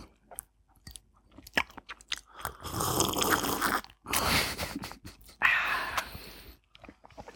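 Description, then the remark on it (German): Fish bones crunching between teeth as someone chews, with irregular bursts of crackling and snapping separated by brief pauses, and no talking. “Man hört, wie die Gräten in, unter deinen Zähnen zerbrechen.”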